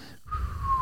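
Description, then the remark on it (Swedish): A person whistles a thin, steady tone that glides slowly downward, imitating how an incoming artillery shell or bomb sounds when it is far away, with a faint breathy rumble underneath and no speech. “Du vet, man hade ju lärt sig hur granater låter, hur bomber låter. Och vet, låter de så här,”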